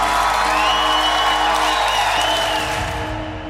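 Sustained clapping from a crowd applauding Senterpartiet's 3.3-point gain in the election fills the whole stretch, dense and steady, with a few cheers and whoops rising above it before it begins to thin out near the end.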